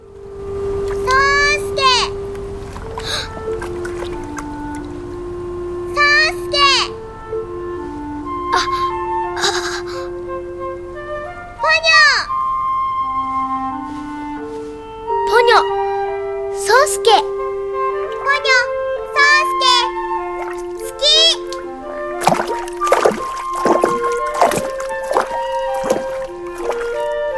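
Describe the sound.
A cheerful animated-film theme song sung in Korean, with a high child's voice and an adult voice carrying a bouncy, stepping melody over light, steady instrumental accompaniment.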